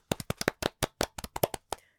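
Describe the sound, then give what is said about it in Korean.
A short burst of hand clapping, about a dozen sharp claps in a quick, slightly uneven rhythm, with nobody speaking over it. “와, 우리 박수 한번 칠까요?”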